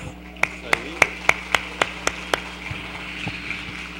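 A steady run of about eight sharp, evenly spaced claps, an audience clapping in unison for the peace volunteers standing up, over a low background murmur, then the clapping stops and only faint noise remains.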